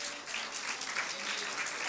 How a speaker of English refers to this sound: If you love the Lord, Give him a hand clap of praise.